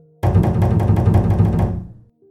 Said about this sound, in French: alors que toute la famille était attablée dans la joie de la fête, quelqu'un toqua à la porte.